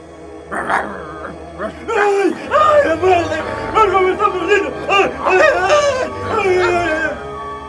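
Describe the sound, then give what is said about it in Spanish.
A dog, woken, leaps on a thief and bites his leg, barking and growling in a rapid, agitated series of loud yelps and snarls that continue with hardly a pause over a low steady hum. “El ladrón Horrorizado, echó a correr hacia la puerta trasera, pero allí despertó al perro que saltó sobre él y le mordió la pierna.”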